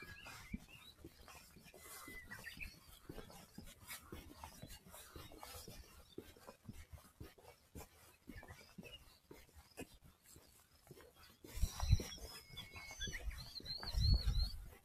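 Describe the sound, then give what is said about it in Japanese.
A Japanese bush warbler sings faintly, its clear whistled phrases rising near the end over soft background rustling and bumps. No one speaks. “このウグイスたちはいつまでない、いつ頃まで泣き続けるんだろうか。”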